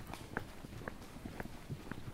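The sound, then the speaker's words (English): Slow, evenly spaced hoofbeats of a horse walking by, about five soft thuds roughly half a second apart, fairly quiet against a faint outdoor background with no talking. “oh, there's a horse”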